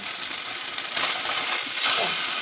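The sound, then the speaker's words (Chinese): Steady, crackling sizzle of a thick salmon fillet searing on its side in a pan with no oil added, a dense hiss that swells slightly near the end, with no voices. “好，那因为我这个菲力稍微比较厚，我侧边呢也稍微煎一下它。”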